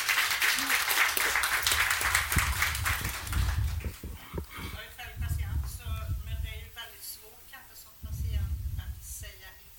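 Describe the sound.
Audience applause, a dense, crackling burst of many hands clapping, fills the first few seconds, then fades as voices take over and talk continues with only scattered claps underneath.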